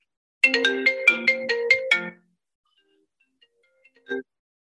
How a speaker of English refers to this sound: i'm sorry i got a phone call